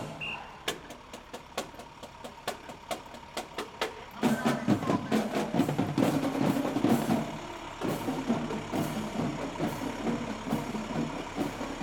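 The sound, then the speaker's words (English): Military diesel trucks idle past during a parade, a heavy engine rumble swelling in loudly partway through and lingering, with sharp clacking hits scattered over a busy outdoor background. “military diesel trucks idled by.”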